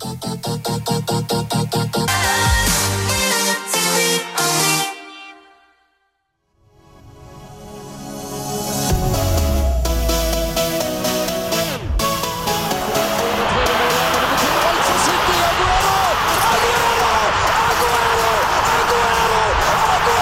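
A pop song plays with a driving beat and layered synths and vocals, briefly cutting out to near silence before rebuilding into a loud, dense chorus.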